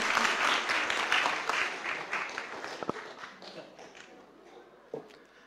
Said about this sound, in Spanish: Amén y un aplauso fuerte. Ahora sí, con ganas.